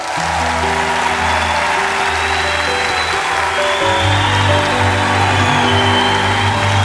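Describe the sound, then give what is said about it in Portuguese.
An audience claps loudly and steadily for about seven seconds, a dense, unbroken patter of many hands. Sustained low musical tones drone underneath, and no one speaks over it. “Uma salva de palmas.”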